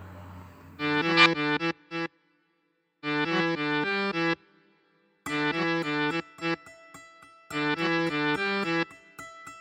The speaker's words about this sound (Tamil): இந்த தகவலோட உங்களுக்கு அவர் சூப்பரான சாங் ரெடி பண்ணுற கேட்டு என்ஜாய் பண்ணுங்க